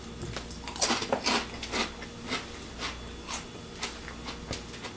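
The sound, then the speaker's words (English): Crisp crunching of sea salt and vinegar potato chips being bitten and chewed, a series of sharp brittle cracks in an irregular rhythm, with no talking. “And then you get that nice, nice crunch.”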